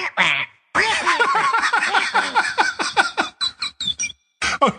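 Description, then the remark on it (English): A person squawks in a harsh, raspy parrot-like voice while giving his contact details, a quick chattering burst of nasal syllables delivered loud for several seconds, with brief pauses near the end. “for those who don't speak parrot”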